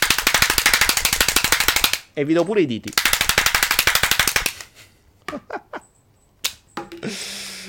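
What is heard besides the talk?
applause sound effect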